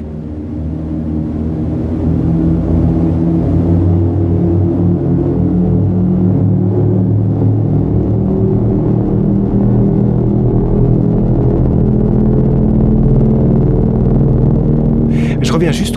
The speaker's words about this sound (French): Après, il y a ce grand glissando, on a l'impression qu'un avion euh, menaçant survole le radeau, puis s'éloigne, le son disparaît, et à partir de là, on arrive dans la troisième partie du morceau.